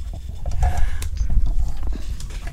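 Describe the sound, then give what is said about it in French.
Nala, a pet animal, vocalizing at the microphone: a continuous low rumbling with brief higher cries and soft bumping noises throughout, no talking. “Nala, ne casse pas le micro, s'il te plaît, Nala.”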